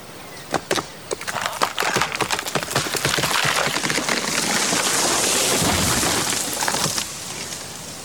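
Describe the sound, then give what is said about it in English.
Sharp wooden cracks and splintering snaps build quickly into a loud, sustained rushing crash as a tree comes down through branches in a forest, then the noise cuts off. No one speaks. “If a tree falls in the forest and no one is around, does it make a noise?”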